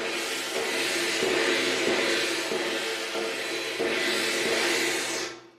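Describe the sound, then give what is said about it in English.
A gong rings out with a loud, dense metallic wash, struck again and again so the roar swells every second or two, then fades at the end. No voices. “Um, and so this is what a gong sounds like. Uh, it sounds like that.”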